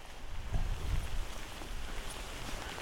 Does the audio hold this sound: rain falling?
yes